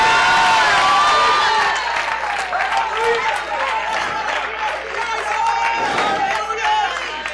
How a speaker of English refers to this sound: Clap your hands unto the Lord and shout unto the Lord with a voice of triumph.